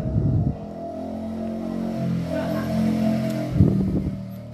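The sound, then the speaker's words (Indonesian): A motorcycle engine drones for several seconds, its pitch rising and falling, with louder revving bursts at the start and again near the end. No one speaks. “ada suara motor dikit ya”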